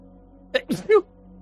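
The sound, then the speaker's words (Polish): A single sneeze: a quick sharp intake followed by an explosive, breathy burst, then silence with a faint hum underneath. “Na zdrowie.”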